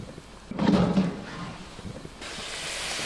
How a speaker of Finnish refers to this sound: kun sä avaat sen savustimen kanne ja sieltä tulee se pihahdus